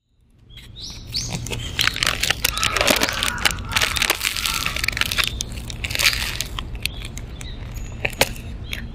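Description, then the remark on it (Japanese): Loud crunching of a flaky Danish pastry being bitten and chewed, a dense stream of crackly, crisp bursts lasting several seconds with no talking. “パリパリの電子生地のパリパリ具合が半端なくて、もう、歯を入れるとパリパリパリパリっていう、ザクザクって音がするんですよ。あまりに、あまりにその音が素晴らしかったので、撮りました。”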